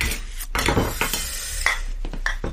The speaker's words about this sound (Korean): 아 몰라. 말린다고 내 말 들 것도 아니고 내 할 바 아니야. 설거지나 하자.